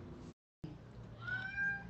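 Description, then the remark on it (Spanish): A female cat gives a clear, drawn-out meow, its tonal call rising and wavering after a brief silent gap, over a low steady background hum. “Aquí tengo cerca a mi gatita.”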